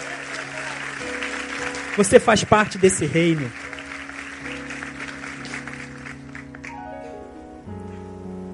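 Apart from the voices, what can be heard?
audience applauding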